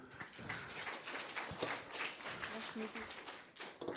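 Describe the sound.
An audience applauds with steady, dense clapping that holds for several seconds, with a few voices faintly mixed into the crowd noise.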